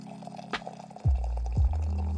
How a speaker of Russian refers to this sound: Необходимо постепенно вливать воду в чашку, добиваясь нужного эффекта.